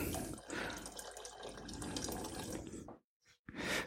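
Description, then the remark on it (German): About half a liter of soup, straight from the fridge, is poured steadily into a cooking pot for about three seconds, a broad rushing splash, then it stops abruptly with a couple of short trailing splashes. “Da werde ich jetzt mal so einen halben Liter drauf gießen.”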